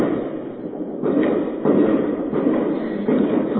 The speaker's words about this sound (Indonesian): itu suara apa? Kembang api Iyalah, tidak apa-apa Senang sekali mungkin Tuhannya ada kembang apinya